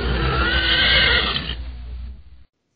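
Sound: horse neighing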